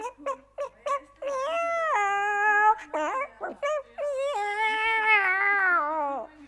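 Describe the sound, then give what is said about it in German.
A pet cat named Kitty meows in an odd, drawn-out way, starting with a few short chirps, then long wavering yowls that bend in pitch, loud with no talking. “Und genau in diesem Augenblick, als meine Mutter das erzählte, starrte auch mein Kittykätzchen meine Mutter an und miaute ganz merkwürdig.”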